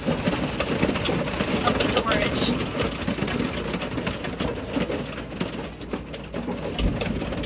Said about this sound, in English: Pretty sure that's the sound of hail on our new Airstream that we just got out